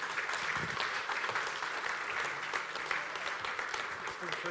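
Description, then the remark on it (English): A crowd claps steadily and densely for several seconds, a bright, even wash of many hands with faint voices murmuring underneath, applauding audience volunteers. “Let's give these guys a round of applause, shall we?”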